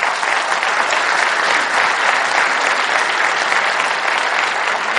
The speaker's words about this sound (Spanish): así como les dije que un aplauso para ella.